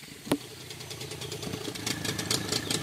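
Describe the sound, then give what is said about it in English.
A small outboard motor on the back of a long, skinny dugout canoe idles steadily on a river in the Amazon, with a rough, chugging rhythm, punctuated early by a sharp knock; no one speaks. “Two guys are waiting for us in a long, skinny dugout with an outboard on the back.”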